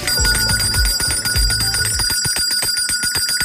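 A bright, rapidly repeating electronic bell ringtone, signalling that it is time to drink a glass of water, plays loudly and continuously, with a low musical backing in the first half, then sharp rhythmic ringing pulses alone.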